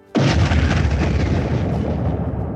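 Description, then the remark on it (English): A sudden, loud explosion bursts in and rolls into a sustained, rumbling roar of artillery-like blasts, deep and dense, continuing without any speech: explosion sound effects of gunfire intensifying along with explosions to the west. “you hear the sounds of gunfire intensifying with uh, along with some explosions to the west we got some explosion sound effects ready”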